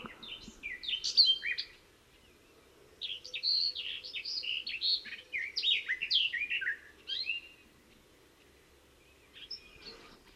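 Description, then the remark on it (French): Garden warbler song: rapid, fluty, high-pitched warbling phrases pouring out in long continuous bursts at a level pitch, with a brief pause between them, clear, with no voices. “fauvette des jardins, c'est un flot continu de, notes flûtées, de notes euh, aiguës, euh, mais qui ne monte pas à un moment, tant que ça s'arrête au, au, niveau.”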